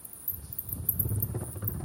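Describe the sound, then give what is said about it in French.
High-pitched, rapid crackling chirps from a colony of bats roosting in rock crevices flicker over a low, steady rumble as many bats call at once at nightfall, beginning their hunt for insects, with no voices present. “Des crépitements aigus se font entendre. Une colonie de chauves-souris a élu domicile dans les crevasses.”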